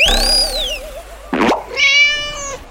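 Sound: cat meowing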